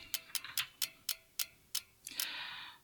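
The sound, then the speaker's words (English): A prize wheel, spun to pick for the Sega Genesis, ticks as it spins, its sharp clicks spacing out as it slows, then a bright sustained chime rings out at the end. No voices. “I'm going to spin my wheel and let's see what it gives me.”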